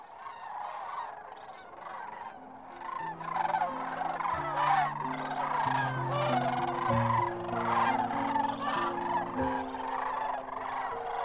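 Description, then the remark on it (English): A large flock of cranes calls continuously as they glide in to land at the Platte River, dozens of rattling, trumpeting cries overlapping into a dense, loud chorus, with a low steady hum underneath. “The cranes glide toward landing, their yellow legs stiff, below them the gray brown Platte running toward the sea.”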